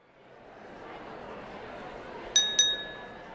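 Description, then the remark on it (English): Two bright glass clinks ring out together near the end as glasses are raised in a toast, their thin tones lingering, over a steady murmur of background crowd noise. “Let us toast once more. Raise your glass”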